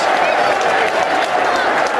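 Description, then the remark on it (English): A football crowd at The Den cheering after a goal by George Saville made it 3-0 with 15 minutes to go, a loud, steady roar of massed voices that holds unbroken for the full two seconds, with a faint patter of applause mixed in. “Crowd in the den believe so.”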